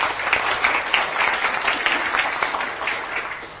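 An audience applauds steadily, many hands clapping in a dense, sustained patter at moderate loudness for a few seconds.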